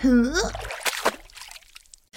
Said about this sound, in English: all the muddy water from the puddle I jumped into rolled down my face and on my dress, my party dress.